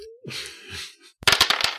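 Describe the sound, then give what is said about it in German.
Dice rolled across a hard surface, a quick burst of about six sharp, clattering clicks after a brief pause, following a softer, breathy swirling sound at the start. “Ach, du hast schon gewürfelt.”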